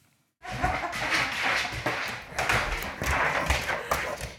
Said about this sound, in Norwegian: Møt Fanny, en ti måneder gammel briar som ligner ganske mye på labbetuss. Hun hilser som unge hunder pleier, ved å hoppe opp og snuse skikkelig på meg.